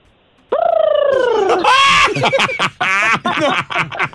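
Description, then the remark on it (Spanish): A person imitates a turkey gobble: a long, warbling, descending vocal call followed by a rapid, bubbling series of choppy gobbles, loud and alone without speech. “¿Y cómo hacía el pavo?”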